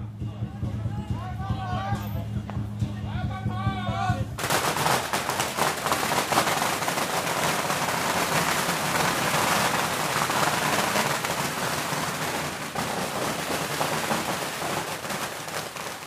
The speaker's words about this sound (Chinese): 沿途就会有信徒商家把点燃的鞭炮丢向土地公的神轿，鞭炮放得越多，财运越旺。因为是朝土地公放鞭炮，所以叫夜弄土地公。